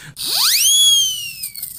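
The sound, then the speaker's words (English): A single whistle sound effect sweeps sharply upward in pitch, then holds a loud, bright, slightly falling tone for over a second before cutting off. No one speaks. “Yeah, her- blow the skeptic whistle on yourself today.”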